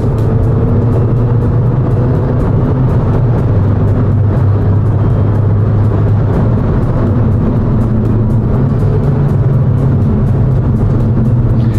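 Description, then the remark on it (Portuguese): A car engine roars steadily and loudly as the driver floors it down a long straight with a sportier drive mode engaged, its deep droning tone sustained for the whole stretch with no voices. “Vou pegar o retão agora e pisar fundo.”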